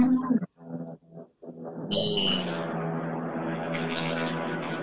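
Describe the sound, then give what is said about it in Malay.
A low, droning rotor-like engine roar rises and settles into a steady, loud rumble, like a helicopter passing overhead near a federal highway, after a few brief choppy bursts. “Eh, bunyi apa tu? Helikopter ke?”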